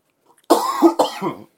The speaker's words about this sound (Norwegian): Den må du ta med. Kanskje den eneste hostingen jeg kommer til å ta med. Vi pleier å kutte de ut, egentlig.